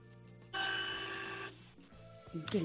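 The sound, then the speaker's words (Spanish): A single steady car horn blast lasting about a second, thin and slightly distant, recorded on a mobile phone held near the horn, followed by muffled background noise. “Vamos a intentar, a ver si puedes acercar un poco más el móvil al, sonido del claxon y le vas a dar un toquecillo de dos segundos.”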